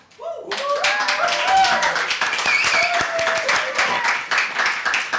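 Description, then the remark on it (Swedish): A live audience at Fountain House, Götgatan 38, Stockholm, bursts into loud, sustained clapping during a live radio broadcast, with excited cheers and whoops rising above the dense patter of hands, keeping up steadily throughout. “Ja, som ni hör är det hög stämning här på Fountain House.”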